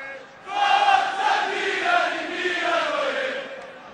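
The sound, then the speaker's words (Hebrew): A large crowd of Milan football fans chants "Forza Milan" in unison, a loud, sustained roar of many voices with a rising, rhythmic cadence, starting abruptly after a brief quiet moment. “זאת הקריאה של האוהדים”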